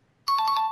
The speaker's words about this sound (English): All right. Well, I am going to, since it's been a while, I'm going to remind everybody that a right answer sounds like this,